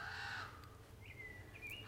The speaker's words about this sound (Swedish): Eh, och det är ju klart att man, att man hör det här lite relativt sällan eftersom eh, det är bara under den här tiden som man hör de här flygfärdiga ungarna skrika efter mat.